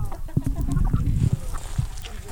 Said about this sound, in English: Yeah, chick, chick, chick, chick. There is a small stampede of chickens.